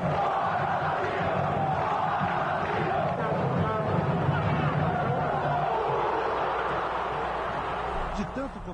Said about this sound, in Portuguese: E você acha que é exagero eu dizer que dá para reconhecer o bumbo da torcida no Pacaembu? Você ouviu como fica aquele.